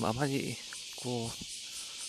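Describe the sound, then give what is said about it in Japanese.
A dense, steady drone of cicadas fills the background, loud and unbroken, during an early-morning walk at 6:46 a.m., while a person speaks in short phrases over it. “えー、セミの声が非常に賑やかですね。”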